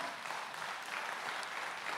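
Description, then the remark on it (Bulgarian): Steady applause from an audience during a sermon, a dense, even wash of many hands clapping at constant loudness for the whole two seconds, with no voices over it. “О, ако ръкопляскаш, ръкопляскай, като че го правиш за Бог, а не за мен.”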